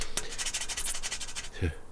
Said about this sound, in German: Herr Schramm reibt die Münze am Zigarettenautomaten.